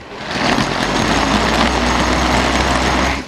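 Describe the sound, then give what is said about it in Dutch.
A bicycle-powered smoothie blender, coupled to the front wheel of a small home trainer and driven as the wheel turns, spins with a loud, steady mechanical whir, a continuous motor-like drone with a low hum underneath that holds evenly for a few seconds. “Want inderdaad, er staat dus een kleine uh, home trainer met op de voorvork gezegd, een smoothie gekoppeld aan het, aan het voorwiel.”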